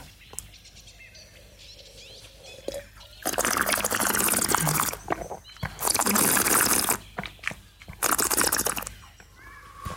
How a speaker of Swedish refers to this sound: Nu måste vi ju faktiskt få sörpla det här också. Skål! Skål!